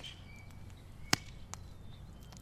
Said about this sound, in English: I notice somebody's pounding a hammer, building something.